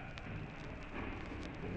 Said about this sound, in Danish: Her er fyldt med vand nede i bunden. Jeg ved ikke, om I kan høre det plasker ned. Det er måske ikke så kraftigt. I kan høre det.